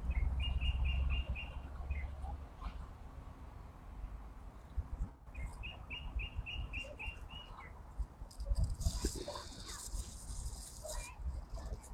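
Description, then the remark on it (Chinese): A blackbird, singing from a tall poplar tree fairly far away, sings two short phrases of quick, evenly repeated high notes, a few seconds apart, over a steady low rumble, with a brief harsh rasping call near the end. “清明天长 | 乌鸫歌唱”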